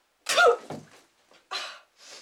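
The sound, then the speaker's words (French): A loud, sudden sneeze bursts out from a professor, followed by a couple of shorter breathy, snorting exhalations trailing off. “À vos souhaits, professeur.”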